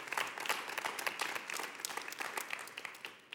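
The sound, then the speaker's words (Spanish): A church audience breaks into sustained applause for God, dense overlapping claps forming a steady, crackling wash of moderate loudness that holds throughout without any voices standing out. “Denle un fuerte aplauso a Dios, iglesia.”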